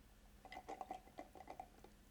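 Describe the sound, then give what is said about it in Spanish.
A quick flurry of light, bright clinks of ice cubes knocking against a glass, around eight or nine taps in about a second, fairly faint, with no voices. “ah, son tus hielos, cabrón, los que estoy escuchando.”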